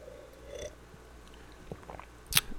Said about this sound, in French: je vais juste prendre une petite gorgée de café.